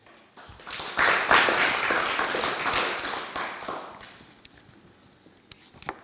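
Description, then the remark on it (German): A short burst of audience applause: many hands clapping in a dense, crackling patter that starts abruptly, peaks early, then quickly thins out to a few scattered claps within a few seconds. “Diese Leute klatschen sehr kurz.”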